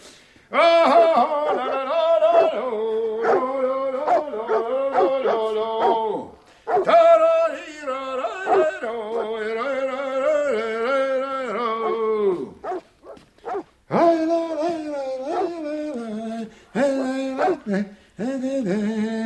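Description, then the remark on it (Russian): Several dogs bark and yelp loudly at their own returning, emaciated owner, whom they do not recognize, an almost continuous agitated chorus with whining, drawn-out cries, breaking into shorter sharp bursts toward the end. “Наш-то крокодил дошел до того, что собаки свои не узнают.”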